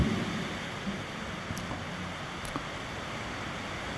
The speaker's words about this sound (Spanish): Y se oyen un breve ruido, es que ya empezó a llover aquí en Tehuacán otra vez. Decía yo que hace unos momentos cayó realmente un aguacero, como hacemos aquí en México, una lluvia muy fuerte.